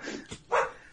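A female household dog gives a short, sharp bark, preceded by a softer yip, in otherwise quiet surroundings.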